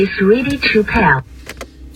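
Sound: inside a car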